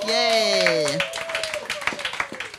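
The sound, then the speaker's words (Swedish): An audience at a show at Fountain House applauds as the first guest is introduced, with brisk, scattered clapping, opening under a sustained vocal cheer that cuts off after a second, then the claps carry on alone and gradually thin out. “En applåd”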